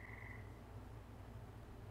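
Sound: frogs croaking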